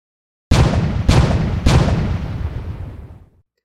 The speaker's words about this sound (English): Cannon fired. Sweaty crews worked feverishly.